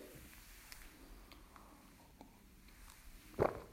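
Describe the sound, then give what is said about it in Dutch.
Faint clicks and rustles of handling, then one brief slurp as someone takes a small sip of a drink near the end. “Ik moet even een slokje drinken hoor, even voor mijn stem.”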